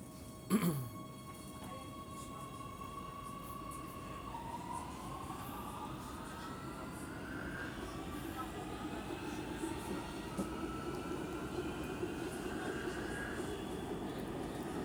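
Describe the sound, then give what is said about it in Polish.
A metro train rolls between stations toward the next station, Centrum Naukowe: a short clunk at the start, then a steady rumbling roar as the electric motors' whine climbs in pitch while the train accelerates. No one speaks. “Stacja. Centrum Naukowe. Drzwi otwierają się z lewej strony.”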